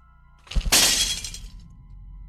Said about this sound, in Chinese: 这时，这声音突然变成了一声巨响，这次我听出来了，声音在厕所，是镜子碎。